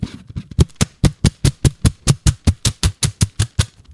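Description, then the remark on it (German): Tesafilm adhesive tape being handled, producing a fast, steady series of sharp crackling bursts, about five per second, fairly loud with no voices. “Falsch! Es ist Tesafilm!”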